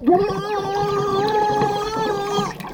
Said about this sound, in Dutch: Heb je al eens geprobeerd om onder water te schreeuwen?